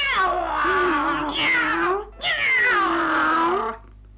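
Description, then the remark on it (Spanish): A cat meows twice, each call long and drawn out with a wavering pitch, loud and clear with only a short pause between them. “Érase que se era un gato que nunca quebró ni un plato, ni anduvo por los tejados como los gatos malcriados e enfurruñados.”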